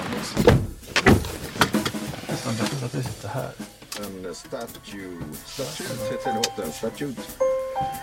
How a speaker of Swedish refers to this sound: Det här är då en eh, amerikansk bil, vet vi på grund av att det låter bältespåminnare när man sätter på den.